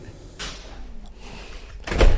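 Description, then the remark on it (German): A refrigerator door is opened to take out yeast for brewing beer: a soft rushing scrape, a quiet stretch, then a louder, heavier thud-and-swish of the door seal giving way. No one speaks. “Jetzt holen wir die Hefe aus einem Kühlschrank.”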